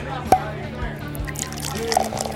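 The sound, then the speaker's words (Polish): Homemade vodka pours into a small shot glass with a short trickling, dripping splash, while faint voices murmur in the background. “Władek, chętnie, ale tylko jednego nalej, takiego małego.”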